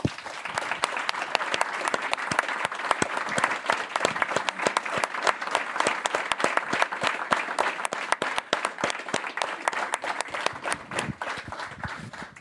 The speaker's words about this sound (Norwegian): Runar Hove, en utrolig fortjent applaus til han.